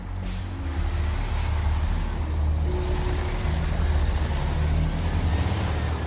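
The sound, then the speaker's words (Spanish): A bus pulling away from a stop, its deep engine rumble droning steadily with road noise, a short airy hiss at the very start. No voices. “Luego le saluda con el sombrero en la mano cuando el vehículo se aleja.”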